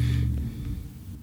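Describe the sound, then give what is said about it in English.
A loud car engine rumbles low and steady as the car drives up the middle of the street, its deep drone strongest at first and then easing slightly as the vehicle moves along. “My goodness, that is a loud car going up the street right in the middle.”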